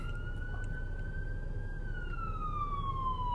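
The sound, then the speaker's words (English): An emergency vehicle siren wails steadily in Minneapolis, its tone slowly rising then falling, over a constant low rumble of city traffic. “And look at you can just hear the Minneapolis in the background.”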